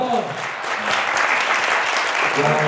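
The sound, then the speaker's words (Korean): An audience at a real estate investment talk breaks into sustained applause, a dense, steady crackle of many hands clapping at once, with faint voices mixed in underneath. “아, 여러분 다시 박수 한번 주세요.”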